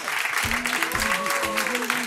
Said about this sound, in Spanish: ¿Dónde estamos? Pues como siempre en nuestra casa, en el Jarro Café de Madrid, y esta noche además con unos nuevos amigos, con Preventiva Seguros. Un aplauso para Preventiva Seguros.